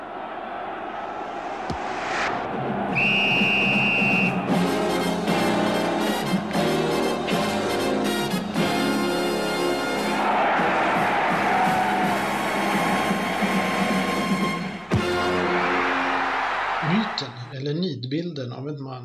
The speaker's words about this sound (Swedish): Men först en vignett som ger ståpäls.